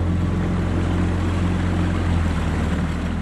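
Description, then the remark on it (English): A boat's motor drones steadily, a loud, unbroken engine hum with a deep throb, as the boat heads upstream on a river, crossing from Limerick into Clare, heard alone without any talking. “points the boat upstream, and we cross the invisible line from Limerick just into Clare”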